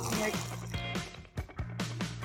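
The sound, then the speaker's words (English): Someone sips from a canned ginger-flavored drink, a few short wet slurps and gulps spaced over a couple of seconds, with a steady low hum underneath. “I'm sipping on one right now.”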